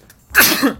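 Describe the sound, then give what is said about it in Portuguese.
A single loud sneeze from rhinitis bursts out after a brief quiet moment, a sharp, breathy explosion with a short voiced tail that quickly fades. “Eita, Saúde. Rinite.”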